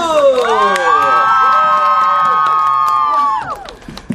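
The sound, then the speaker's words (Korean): A live audience lets out a loud, sustained cheer after a live music performance, many voices rising together and holding a long shout over scattered clapping, then trailing off near the end. “다시 한번 박수!”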